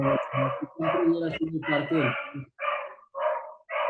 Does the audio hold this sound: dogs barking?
yes